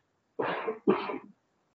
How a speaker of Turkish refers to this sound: Özür dilerim ama biraz öksürük oluyor.